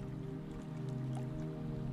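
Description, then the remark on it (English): Soft, gentle waves of lake water lapping against a squeaky dock and rocky shore in a soothing rhythm, with small irregular drips and splashes over a steady low hum, quiet, with no voices. “If nature were to have a heartbeat at this time of day, it will be represented by those serene laps.”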